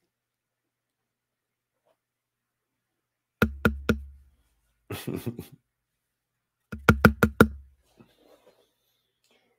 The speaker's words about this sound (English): He was knocking on the door and nobody answered. He was ignored.